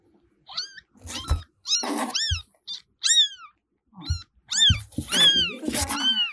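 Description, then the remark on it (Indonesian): A baby kitten moving on the ground meows repeatedly in high, thin, rising-and-falling cries, about eight calls in quick succession with brief pauses, fairly loud, with no talking. “Katanya miong, miong gitu.”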